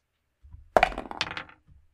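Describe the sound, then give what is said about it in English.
Dice are rolled for a stealth check in a tabletop game, clattering across a hard surface: a sharp first clack, then a quick run of bright rattling clicks that tumble for under a second before stopping. No one speaks. “Go ahead and roll a stealth check.”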